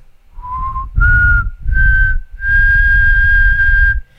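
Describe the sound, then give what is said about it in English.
A person whistles a slow, eerie tune of four notes climbing gradually in pitch, the last one held long and steady, clear with no talking, imitating the ghostly whistle of a legendary figure said to roam Los Llanos de Venezuela. “And now he goes around Los Llanos de Venezuela with his dead dad's bones, with a bunch of like wounds on his back, bleeding, um, whistling like this.”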